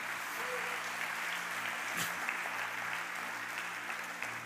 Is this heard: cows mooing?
no